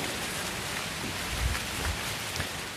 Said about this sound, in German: Jetzt gibt es ja auch schon dieses Geräusch des Windes in den Bäumen. Ist das eine Pappel hier? Die Blätter hören sich immer besonders krass an, finde ich.